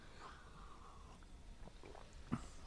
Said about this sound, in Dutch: met een slokje water nemen